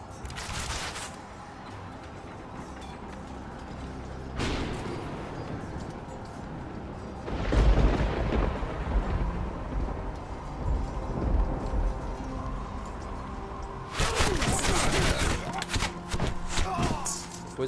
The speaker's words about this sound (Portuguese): batalha sanguinária que vocês tiveram. Vocês escutam ainda os sons de guerra né, atrás de vocês